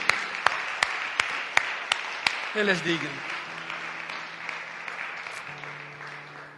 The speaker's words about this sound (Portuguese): E dê um aplauso a Cristo uma vez mais, porque Ele é. Ele é digno.